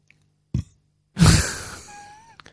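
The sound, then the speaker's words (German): A brief, low gulp-like sound, then a longer, rough belch (a burp, aufstoßen) made during a radio show, that starts strong and slowly fades out, with no talking around it. “Was ich jetzt gerade gemacht habe, ist auch noch aufstoßen.”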